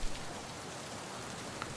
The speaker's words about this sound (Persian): آخه یه دقیقه بشینم زیر این بارون آخش